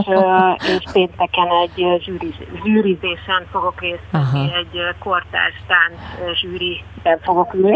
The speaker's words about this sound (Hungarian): most muszáj a hallgatóinknak elárulni, hogy vonaton ülsz, azért mondom, mhm. mert lehet lehet hallani, hogy megy a vonat? Éppen Szlovéniába tartok,